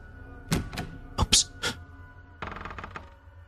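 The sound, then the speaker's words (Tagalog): A closed bedroom door being opened: a few sharp clicks and knocks from the handle and latch, then a short rattling scrape as it swings, with no voices. “Buksan ko na lang tong pinto.”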